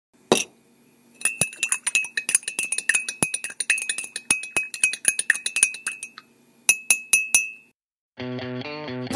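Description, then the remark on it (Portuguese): A spoon clinks rapidly and repeatedly against a ceramic coffee cup, stirring in bright metallic taps, pausing briefly, then a few more clinks before a short musical tone cuts in. “Hora daquele cafezinho.”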